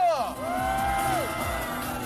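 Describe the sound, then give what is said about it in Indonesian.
Spectators cheer and whoop as participants enter a wide pool over 10 meters in diameter full of sancheoneo (mountain trout), with one voice letting out a long, rising and falling shout over a steady wash of crowd noise that holds for about two seconds. “Saat para peserta muncul, para penonton memberi tepuk tangan dan bersorak-sorai kepada mereka.”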